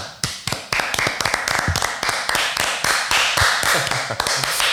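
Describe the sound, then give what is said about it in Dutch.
A short burst of applause in thanks to the aid workers helping with a natural disaster: dense, overlapping hand claps from a small group, steady and fairly loud for about five seconds, with no voices over it. “Een applaus.”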